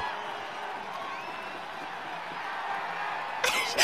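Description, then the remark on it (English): A football crowd roars and cheers in celebration, a dense, steady wall of voices with scattered whoops, swelling into a louder burst of shouting near the end. “As the team and crowd celebrate, Scarlet rushes to Benny's side.”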